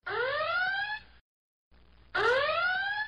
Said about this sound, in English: Yeah, well, I'll put in a spoiler siren here. Okay. Um, Not too loud. It scares people while they're driving. Yeah, true. Uh, a, a muted siren.